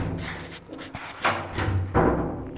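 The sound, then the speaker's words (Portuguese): Knocking on the wrong apartment door just after stepping out of an elevator: a few dull, solid thuds spaced unevenly over a couple of seconds against a low background hum, with no one talking. “Ou seja, a expectativa era tanta que eu saí do elevador e bati na porta errada.”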